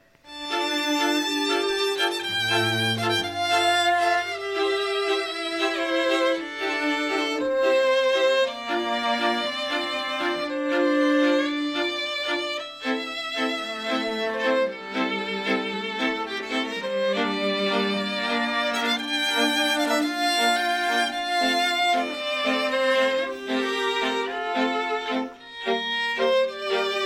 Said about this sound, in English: in this case uh, a family was introduced on stage and uh, it had happy and faster strings uh, to it so uh, here's the second variation on the, the the core theme